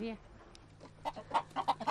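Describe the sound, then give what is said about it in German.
A brief voice trails off at the start, then several chickens from a flock of two dozen kept on a small rocky island cluck in a quick, uneven series of short, clipped calls, growing busier toward the end. “Sie hat zwei Dutzend Hühner und eine Ziege.”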